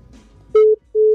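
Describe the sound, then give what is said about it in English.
Two loud, steady electronic beeps of a phone's disconnect tone after a dropped call on a phone whose battery is dying, each lasting about a fifth of a second with a short gap between, following a moment of faint low background noise. “Oh no. We've lost him. My phone is dying.”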